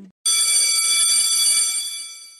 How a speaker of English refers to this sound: I think the school bell is about to ring, so let's get ready to get real.